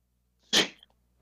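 A single sharp sneeze bursts out, a quick intake followed by a loud, breathy explosion that trails off, with quiet around it.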